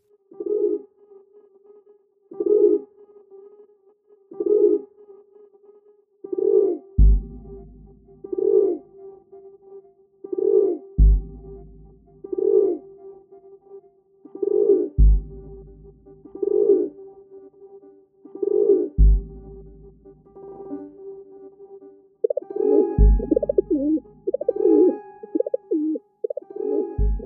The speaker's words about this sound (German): Das war eine Stadtaube. Hat mich ein bisschen überrascht, dass die Stadtaube es in die Top Ten geschafft hat.